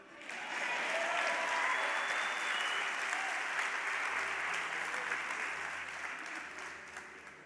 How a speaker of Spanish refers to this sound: ¿Se acaban los aplausos?